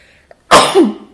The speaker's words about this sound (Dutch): En ik moet niezen. Gezondheid. Oh, dank je.